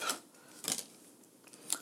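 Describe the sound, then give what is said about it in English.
A few crisp, papery snaps of a tarot card being shuffled and flipped over in a tarot card game, three short sharp clicks spaced unevenly, fairly quiet, with no talking. “We're shuffling, shuffling. One, two, three, flip.”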